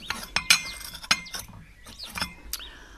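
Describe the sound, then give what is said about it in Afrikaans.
Teacups clink together as a freshly made pot of chai tea is served, a quick, irregular series of bright, ringing taps, about six or seven sharp chinks of china, with a faint high ring trailing off at the end. “Kan ek vir iets aanbied om te drink? Ek het dan net 'n pot chai tee gemaak.”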